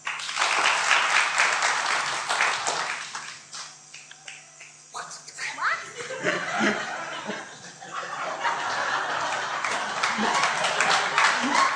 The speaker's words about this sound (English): So, let's see if you did alright. You found it. Give him a clap.